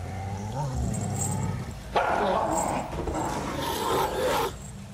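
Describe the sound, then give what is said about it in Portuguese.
Three chained wolves growl and snarl low while devouring the remains of a dead goblin in the east chamber of a cave, a rough continuous rumble with raspy, tearing bursts building up partway through and lasting several seconds. “ele observa no canto direito, na câmara leste da caverna, os mesmos três lobos ainda acorrentados, devorando o que restou de um goblin morto que foi jogado ali.”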